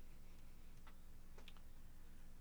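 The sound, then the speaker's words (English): Faint, sparse clock ticks of a radio time signal from Colorado, the government standard clock used by radio-controlled clocks, sound through a steady wash of radio static, with no voices present. “Now we have clocks in our studios here that are what they call a well they they used to call them atomic clocks, but now they're simply saying radio controlled clocks.”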